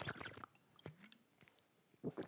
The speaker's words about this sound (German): Flo hat gerade seine Wasserbong angemacht.